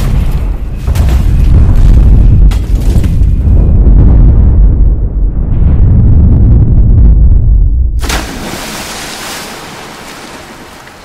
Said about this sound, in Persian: ناگهان موشک های عراقی طی یک پدافند غیرقابل بینی بالای سرشان رسیده و شروع به بمباران پل کردند